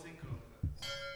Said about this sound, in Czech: Ježiš, to je zvonek, hezky.